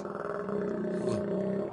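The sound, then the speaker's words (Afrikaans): A loud, drawn-out stomach growl from a hungry person, a low gurgling rumble that rises and wavers for nearly two seconds, with no talking over it. “Oh, Jammer ouens, dis my maag wat so raas.”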